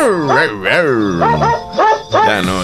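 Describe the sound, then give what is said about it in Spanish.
Dogs bark in a quick, melodic run, each yelp pitched to carry a cheerful Christmas tune, loud with musical backing underneath. “Y llegó la Navidad de los perritos.”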